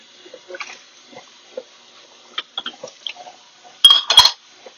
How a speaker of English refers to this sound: side note about dishes. You know what's funny? When you start washing dishes and people start to put more dishes in the sink.